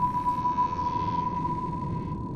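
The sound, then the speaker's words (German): A sonar ping from a depth-sounding sonar system rings as a steady, pure high tone held for the whole stretch, sitting over a dense, low underwater rumble. No one speaks. “Und dann gab es irgendwann diese fantastische Entdeckung der Geräusche, also des Hörens ähm, von Tiefen, die, die sogenannten Sonarsysteme.”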